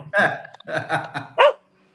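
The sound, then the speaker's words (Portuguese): A dog barks several times in a quick, uneven series of sharp yelps, followed by a brief silence. “Turbo, com certeza, Boa, como todo bom cachorro, deve lá tipo pro cara que entrega pizza de moto”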